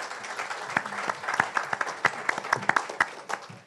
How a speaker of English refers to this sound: Let's have a round of applause for our panel.